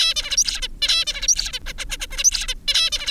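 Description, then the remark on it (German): A zebra finch sings a busy, repeating song of buzzy notes and quick chirps, fairly loud, with a short pause midway and no voices. “An der Freien Universität Berlin erforscht Konstanze Scharf Zebrafinken. Die zwitschern komplexe Gesänge.”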